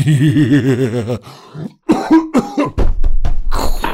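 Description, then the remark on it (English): An exaggerated voiced cough and hacking throat sounds, starting with a drawn-out groaning rasp followed by several sharp, raspy bursts, loud and up front with no talking. “Two is if you cough or sneeze, do it in your elbow, please.”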